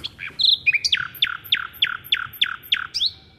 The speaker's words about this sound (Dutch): Ja, dat is een nachtegaal. Prachtig. Is dat jouw lievelingsvogel qua geluid? Nee. Nee, ik vind dat een beetje een uitslover, moet ik zeggen, een nachtegaal.